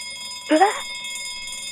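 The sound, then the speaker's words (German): A steady, bright bell tone rings with sustained shimmering overtones throughout, fairly loud, while a brief voiced sound from someone cuts in partway through. “Unter der 4 war ebenfalls die Glocke, das heißt, du hast den zweiten Punkt und das zweite Paar und damit darfst du auch weitermachen.”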